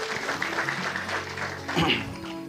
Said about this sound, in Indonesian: Beri tepuk tangan dulu buat Tuhan kita. Yuk.